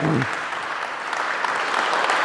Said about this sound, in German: Großen Applaus. Genau.